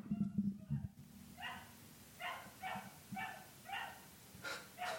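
A neighbour's dog barks and howls repeatedly in the background, a string of short, yelping calls following a brief low rumble at the start.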